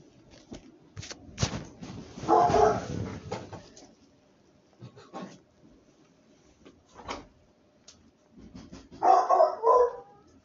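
A pet dog barks in two short bursts several seconds apart, each a cluster of sharp yelps, with scattered knocks and clattering thumps between them and no talking.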